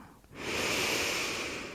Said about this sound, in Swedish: Jag vill att du förlänger andetaget så att inandningen och utandningen blir lika långa men lite längre än vad du normalt andas. Andas in genom näsan.